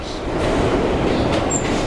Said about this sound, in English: One glance at an old video and you know it's dated, but hearing this, you might be able to imagine you're outside Penn Station in 1929.